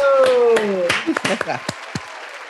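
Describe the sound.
A short burst of audience applause, dense at first and then thinning into a few scattered claps, with a voice calling out over the start.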